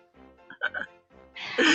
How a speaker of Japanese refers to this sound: 咳止まらないんだったらあの無理しないで大丈夫ですよ。